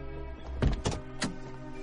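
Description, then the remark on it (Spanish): A car's driver-side door opening: a series of three sharp mechanical clicks and thunks from the handle and latch, fairly loud against a low steady hum, with no voices. “El padre abre la puerta del conductor.”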